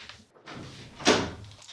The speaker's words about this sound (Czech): počkej, já zavřu dveře jenom.